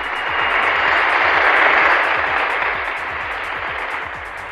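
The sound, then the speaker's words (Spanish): A steady burst of applause in Mexico City, many hands clapping in a dense, crackling wash that holds for several seconds and eases off slightly toward the end, with no voices over it. “estimada señora doña Gela, aplausos, por favor.”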